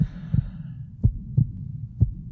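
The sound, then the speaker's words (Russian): A frightened old man's deep, heavy heartbeat thuds loud in a steady lub-dub rhythm, about three beats over a low background rumble, with no voices. “А меж тем адский барабанный грохот сердца нарастал.”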